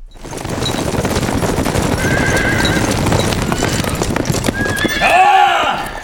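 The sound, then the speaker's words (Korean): A dense clatter of many hooves pounding continuously, with a horse's loud whinny rising and falling near the end, suggesting a group of horses galloping. “너희들은 민가로 쳐들어가서 마국간에 있는 말들을 모두를 빼앗아 오도록 하라!”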